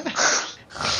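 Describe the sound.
A voice imitates snoring with two close, raspy, breathy snorts, a longer one followed by a shorter one after a brief pause.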